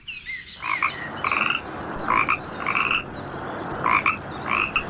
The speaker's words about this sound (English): The first fireflies blinked over the water. The crickets began their singing and the frogs their croaking.